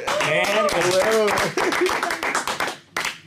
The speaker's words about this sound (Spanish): Nunca habíamos aplaudido acá un programa, güey. Nunca.